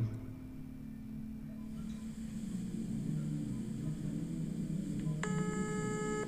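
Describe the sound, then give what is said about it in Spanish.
A low, steady hum fills the background, then near the end a bright electronic ring tone sounds and holds, as a cell phone calls a mother's cell phone number and no one answers. “Me acosté en la cama de mi habitación, saqué mi teléfono celular y marqué su número.”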